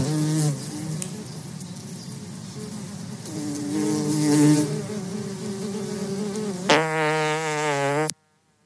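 A fly buzzes loudly, its drone wavering in pitch for several seconds, then shifting to a higher, steadier whine before cutting off abruptly.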